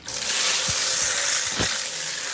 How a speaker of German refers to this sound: Duschen mit richtig fließendem Wasser. Wahnsinn. Großartig, wie gut das tut.